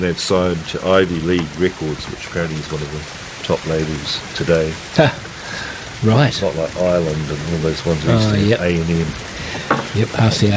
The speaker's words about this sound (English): you can hear the rain in the background, and um, we've we've uh, chosen today's theme to be rain um, because we've had an awful lot of it over the last week, and there's a bit more coming